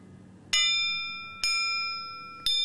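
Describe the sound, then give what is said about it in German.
A gun barrel bundle, two single barrels soldered together, is struck three times at roughly one-second intervals to check the soldering, each tap ringing out with a clear, sustained bell-like tone that slowly fades. Fairly loud, with no talking. “ein Klang wie eine Glocke”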